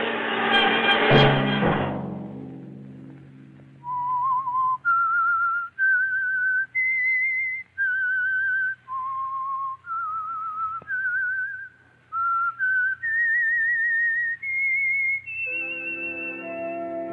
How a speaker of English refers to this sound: that whistle be your signal for the Signal Oil program, The Whistler, each Sunday night at this same time.